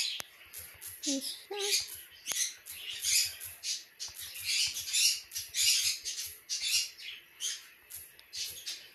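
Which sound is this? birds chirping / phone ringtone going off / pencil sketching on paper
birds chirping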